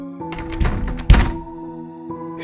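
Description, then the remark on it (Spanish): Someone tries a padlocked door that leads down toward a well: a dull rattling thud, then a heavier, louder thunk as it fails to open, with a steady low hum in the background throughout. “Intenté abrir la puerta y me di cuenta que, en efecto,”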